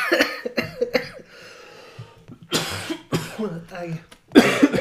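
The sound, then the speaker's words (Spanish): A person coughs in a sputtering fit after choking while laughing, several harsh bursts with short gasps between, mixed with breathy laughter and throat clearing. “me atraganto de la risa, aquí, hijo de puta.”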